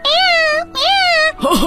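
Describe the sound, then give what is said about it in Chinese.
A voice mimics the calls of machine animals from a hunter-confusing machine in a children's story: two long, high, wavering hoots, each rising then sliding down, followed by a short, quick warbling coo. The calls are loud and stand alone. “原来啊，它制造出了各种机器动物，让每一种动物都发出它们的叫声，来扰乱猎人的判断。你听， 呜呜，咕咕咕”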